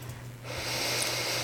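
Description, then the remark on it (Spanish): A single airy breath, likely an inhale through the nose, swells in about halfway through and holds steady to the end over a faint low hum. No one speaks. “Y hay un primer sonido que es el que vamos a escuchar, que es nuestra ah. propia respiración.”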